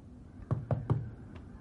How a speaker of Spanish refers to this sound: Vincent se dirige a la casa de Stoddart. se acerca a la puerta de cristal. Mira hacia el interior. ¿Hola? Vincent golpea el cristal.